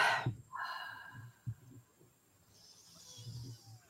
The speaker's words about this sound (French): Une bonne respiration, on voit ce qui se passe en toi. Sens bien tes pieds au sol.